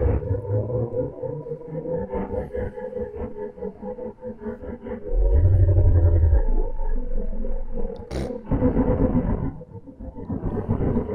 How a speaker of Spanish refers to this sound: Sonido de Marte, directo de Marte. Esto lo van a escuchar muy bien, seguro.